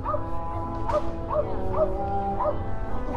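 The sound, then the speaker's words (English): A dachshund barks in short, high yips, about six spaced across a few seconds, set against steady sustained music and low street ambience. “Is it a dachshund barking? Of course it is.”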